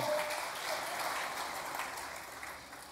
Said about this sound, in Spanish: Por eso, deseo un aplauso por venir este miércoles a la casa de Dios.